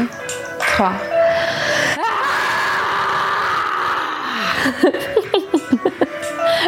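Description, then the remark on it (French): After a count to three, several people breathe in and let out a long, loud scream together for a couple of seconds, then dissolve into bursts of breathy, rhythmic laughter. “ok, donc je compte jusqu'à 3, on inspire et on, on, crie euh, comme on veut.”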